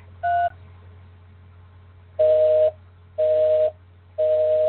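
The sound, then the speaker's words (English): Touch-tone keypad dialing into the Blog Talk Radio phone system: one short beep, then after a pause three longer tones at an even one-second rhythm. They are clear over a faint low hum, with no talking. “To start your show now, press 1.”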